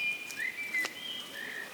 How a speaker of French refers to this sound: Je suis capable d'aller au parc tout seul, dit le petit loup aux oiseaux qui piaillaient.